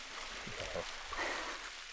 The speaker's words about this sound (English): It's a breathtaking pocket of space in the rock, where the sounds of a trickling waterfall echo through the canyon.